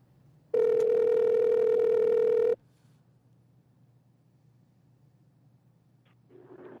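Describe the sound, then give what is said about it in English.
A single ringback tone purrs on a phone line for about two seconds, loud and steady, during a call placed to a grandfather, then gives way to faint line hiss while the call waits to be answered. “So we we called Grandpa and uh, we wanted to hear what he thought about this awful classic Cleveland Browns loss, and he was a little preoccupied at the time.”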